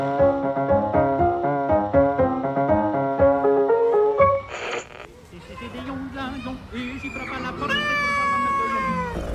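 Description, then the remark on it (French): A few seconds of bright, plinking music give way to a brief burst, then a cat named Duplessis meows a couple of times, drawn-out and wavering, clear. “Eh oui, je suis un chat.”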